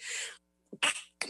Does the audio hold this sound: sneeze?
yes